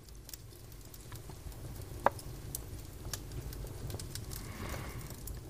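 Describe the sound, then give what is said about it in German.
A fire crackles and pops in a fireplace in the living room of a wooden hut, with irregular small snaps over a low steady rumble and one sharper pop near the middle; quiet, no voices. “Du gehst ins Wohnzimmer und setzt dich vor den Kamin, in dem ein wohlig warmes Feuer gemütlich vor sich hin knistert.”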